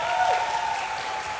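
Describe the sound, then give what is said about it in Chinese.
A crowd applauds steadily for the young members of a band at their new song release event, a dense wash of many hands clapping at an even, sustained loudness with no voices standing out, a faint tonal hum running underneath. “有的话，给他们一个热烈的掌声，好不好？”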